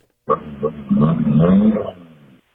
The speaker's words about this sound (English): it sounds fun, whatever it, sounds it is. like three cylinder or uh, something. Uh, yeah, uh, I'd go three and a half. I don't have no idea. It's a four cylinder with something done.